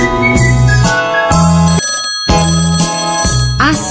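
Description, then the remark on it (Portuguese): A loud, bright phone ringtone plays a repeating melodic pattern of short tonal bursts, with a brief gap midway, heard alone without any talking, introducing the WhatsApp segment of the radio programme Nos Caminhos de Assis. “WhatsApp. O WhatsApp do Caminho de Assis.”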